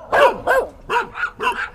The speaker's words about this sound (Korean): 아버지는 그렇게 남은 안주를 싸왔다가 동네 개들이 짖을 때면 남의 집 담장 안으로 한 개씩 던져주었고 그렇다면 또 동네 개들은 더 좋다고 그냥 훨씬 크게 짖어대곤 했습니다.